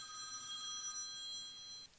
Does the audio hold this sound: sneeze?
no